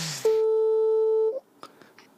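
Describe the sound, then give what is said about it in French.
A single steady electronic phone tone from a call on speakerphone sounds loudly for about a second, flat and unbroken, then cuts off, leaving a few faint rustles and clicks. “Là, du coup, c'est appel haut-parleur directement”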